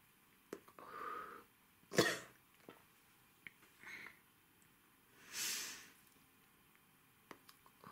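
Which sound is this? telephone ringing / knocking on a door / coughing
coughing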